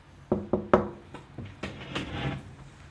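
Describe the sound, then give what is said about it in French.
Three quick, firm knocks on a wooden door, followed by a few softer thumps and rustling as the sound dies away, with no voices. “Elle en eut à nouveau la preuve lorsqu'Abby frappa à sa porte.”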